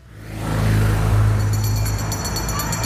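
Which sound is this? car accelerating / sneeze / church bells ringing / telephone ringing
car accelerating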